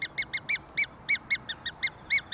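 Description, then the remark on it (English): A fox-calling whistle mimicking a mouse: around eleven short, high, reedy squeaks in a quick, slightly uneven series, each a clipped chirp over faint background hiss, with no voices. “represents just a little mouse. But what what the trick is, this is the trick. If you have got the whistle in your mouth, the fox's mental radar locks exactly to where he wants to be.”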